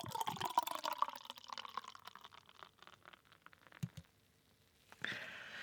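Yebisu beer glugs and fizzes as it is poured into a glass in a shop, a steady gurgling stream that rises in pitch as the glass fills, followed by a short clink and a burst of foamy hiss.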